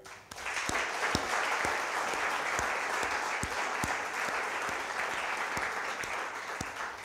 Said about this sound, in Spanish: Le damos un aplauso al Señor, venga.